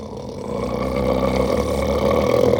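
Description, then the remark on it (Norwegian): A person imitates a dog's growl, a low, rough, rumbling vocal sound held steadily for a couple of seconds, fairly loud with no other talking. “som lager den hunden, har, nei, lyden, han eh, vi, vi, vifter med halen.”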